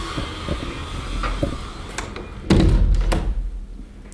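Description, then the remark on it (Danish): A window is pulled shut: a few light clicks and rattles over steady outdoor hiss, then a solid thump, after which the background noise drops and the room goes quieter. “Jeg tror lige, jeg lukker vinduet.”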